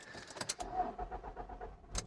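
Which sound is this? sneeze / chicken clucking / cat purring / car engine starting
car engine starting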